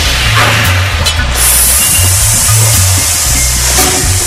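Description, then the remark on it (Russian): Hot forged metal is quenched in water, giving a loud, steady hiss of steam that holds for several seconds over a low, uneven rumble, with no voices. “Скорее, скорее, не жалейте, бейте посильнее. Теперь в воду.”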